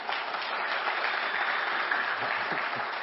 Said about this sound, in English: Why are you clapping? I didn't do anything. I just asked a question that revealed a whole lot about this room.